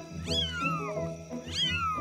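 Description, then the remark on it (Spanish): Newborn kittens mew in thin, high-pitched cries that slide downward. Two main bursts of overlapping squeaks come about a second apart, fairly loud, with no one talking. “¡Ya nacieron! dijo Danilo sorprendido.”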